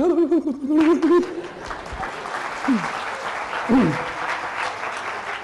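An audience breaks into sustained applause, a dense wash of clapping that stays steady throughout, with a voice briefly speaking at the start and a couple of short vocal exclamations rising over the clapping.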